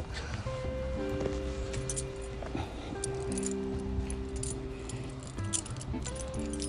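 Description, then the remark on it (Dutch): Keys jingle and metal clicks and clinks sound as a door lock is worked, with a few sharp clacks over a steady low background hum. “Deze doe ook op slot.”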